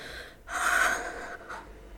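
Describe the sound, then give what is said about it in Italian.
A sharp, loud gasp of breath drawn in suddenly after holding the breath while running up stairs two at a time and shutting a door, followed by a shorter, softer exhale. Airy, with no talking. “Non ha nemmeno finito di formulare il pensiero che già sta salendo i gradini due alla volta, ancora in apnea. Tira la maniglia, entra, chiude la porta. Finalmente respira.”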